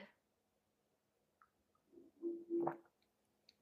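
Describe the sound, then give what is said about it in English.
A quiet slurp of someone sipping water, with a brief wet squishy gulp and faint mouth sounds, over a near-silent background with no talking. “I'll grab a sip of water.”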